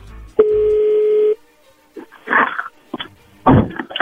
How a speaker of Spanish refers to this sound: Bueno, vamos a ver qué pasa, ahí se está marcando no haga ruido, por favor.